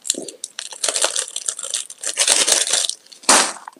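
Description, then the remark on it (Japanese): Cellophane tape (Sellotape) is pulled off a roll in crackly, rasping stretches, ending with one sharp, loud tear. No one speaks. “セロテープでピッ。”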